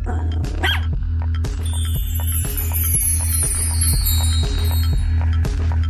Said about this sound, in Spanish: ¿Escuchaste el perrito que ladró? Sí.